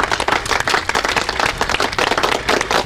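A burst of audience applause for a guest, many hands clapping quickly and densely at a steady, fairly loud level for a few seconds with no voices.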